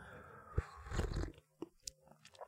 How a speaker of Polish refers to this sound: dzisiaj specjalnie z dedykacją dla pani jest to siorbanie